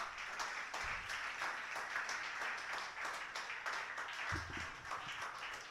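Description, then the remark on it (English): An audience claps steadily, a dense wash of many hands sustained at even loudness throughout, with a few brief low thumps or murmurs underneath and no one speaking, applauding a poet after his scores are announced at a poetry slam. “Let's keep cla clapping for Chris, though.”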